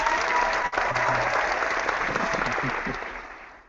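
A show's audience applauds steadily, a dense wash of many hands clapping that holds strong before tapering slightly at the end, with faint voices murmuring underneath.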